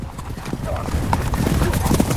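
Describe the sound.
Horses ridden by two gaucho riders gallop with a rapid, steady clip-clop of hooves, joined by a brief neigh partway through, while someone speaks over the sound.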